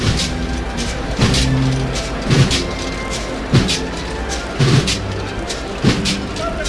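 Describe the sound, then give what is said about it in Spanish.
A swaying palio canopy of a procession, being moved (the muda) in the San Lorenzo area, sends out rhythmic clinks and knocks, a steady pulse roughly every second, over a constant murmur of an outdoor crowd. “quieren ver cómo se mueve el palio de la Virgen del Dulce Nombre, váyanse ahora a la zona del San Lorenzo porque está haciendo la muda de un palio que suena así de bien.”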